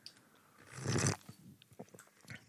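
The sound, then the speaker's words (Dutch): A single loud, airy slurp of hot, strong Chinese jasmine tea, lasting under half a second, followed by a few small wet mouth clicks in otherwise quiet surroundings. “Nou, slurpen.”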